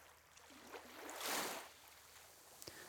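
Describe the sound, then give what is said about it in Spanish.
A single soft sea wave rushes in and recedes on an empty island beach, swelling to a gentle hiss midway and fading again. Quiet, with no voices, and a couple of faint ticks near the end. “Solo se escuchan a las gaviotas y a algún otro pájaro, las olas del mar.”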